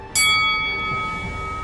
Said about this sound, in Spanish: y por un ataque tan fuerte y continuo, sonó la campana del quinceavo round.